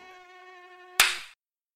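A mosquito's thin, high whine drones steadily for about a second, then a sharp slap cuts it off abruptly, followed by silence.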